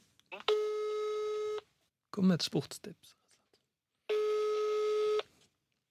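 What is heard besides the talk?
telephone call ringing tone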